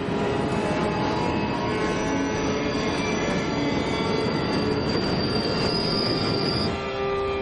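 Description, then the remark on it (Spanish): A train rolls through a station above a highway without stopping, a loud continuous rumble with high, sustained wheel squeals ringing over it, then easing slightly at the very end. No one speaks. “Está en la estación sobre la autopista. Un tren pasa sin detenerse.”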